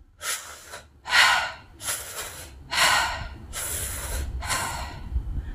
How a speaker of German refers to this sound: Und wir atmen ein, als wenn wir an einem Strohhalm saugen. Und bei der Ausatmung lassen wir einfach komplett los.